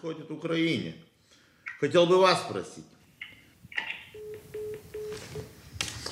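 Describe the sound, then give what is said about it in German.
Two short bursts of talk on a phone line, then a quick series of four evenly spaced low beeps as the call is hung up, on a call made from a grey-blue iPhone in Vilnius to a randomly generated number. “Die Telefonnummer, die er gerade angerufen hat, hat ein Zufallsgenerator für ihn ermittelt.”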